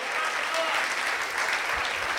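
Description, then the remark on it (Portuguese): A church audience applauds the Lord during a sermon, a dense wash of many hands clapping at once, sustained and fairly loud throughout. “Aplauda o Senhor.”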